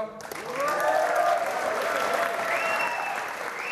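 A crowd cheers and applauds steadily as a 26-year-old is announced winner of the Skårungen film prize, with dense clapping and rising whoops and shouts mixed in, sustained at a fairly loud, even level throughout.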